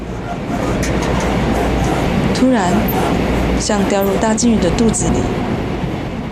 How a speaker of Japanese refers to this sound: 突然クジラに飲み込まれてしまったような感覚になりました車輪とレールが刻む息の合ったリズムを聞きながら列車はスーッとトンネルに入っていきます